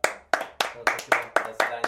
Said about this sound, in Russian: Аплодисменты людей, которых уже давно нет живых.